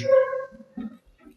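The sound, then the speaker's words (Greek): A dog barks outside, not next to the microphone: a drawn-out bark followed by two shorter, muffled barks, with quiet pauses in between. “Κάναμε μια μικρή διακοπή, όπω ακούγεται και στο προηγούμενα λεπτά Χαβίζει ο σκύλο, ο οποίο δεν είναι δίπλα μα, αλλά το μικρόφωνο πιάνει πολύ εξωτερικού θορύβου δυστυχώ, όπω θα έχετε καταλάβει.”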